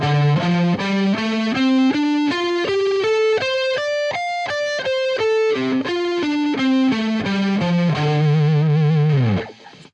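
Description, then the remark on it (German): A distorted electric guitar plays a quick pentatonic scale run in the root key, climbing note by note and then descending, ending on a long sustained low note with vibrato that fades out. No talking. “Also eine Pentatonik ähm, auf der ähm, Grundtonart wird dann so klingen zum Beispiel.”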